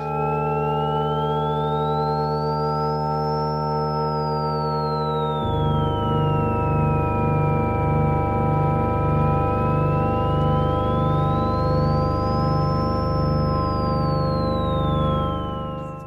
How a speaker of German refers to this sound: Planetenbahnen wurden auch schon hörbar gemacht.